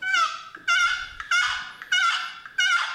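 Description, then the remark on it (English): A turkey box call played the wrong way, with its paddle picked up, scraped in a series of raspy, honking yelps: about five loud strokes in a choppy rhythm, each a harsh squawk with rich overtones, with no talking. “the new jargon box call”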